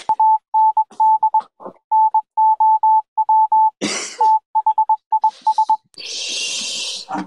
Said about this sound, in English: Uh, is that a Morse code? Morse code revealing the next chain integration.